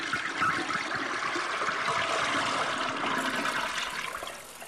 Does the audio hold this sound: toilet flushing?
yes